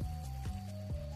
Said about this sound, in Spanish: se te está cortando, mi amor, se te está cortando, se te está cortando. Escúchenme, recuerden por, por el teléfono. El Bluetooth es lo peor que puede tener el carro para hablar aquí